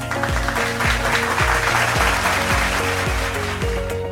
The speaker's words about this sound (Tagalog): Siguraduhin lamang na kayo'y nasa komportableng lugar. Pumalakpak nga ng malakas kung talagang handa na kayo